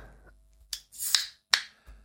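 A beer can cracks open: a sharp click, then a short fizzing hiss that swells and cuts off, followed by another crisp click and a soft low thud. No one speaks.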